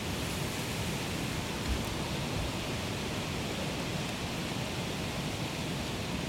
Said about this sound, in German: Das Ist tatsächlich einfach nur Wind.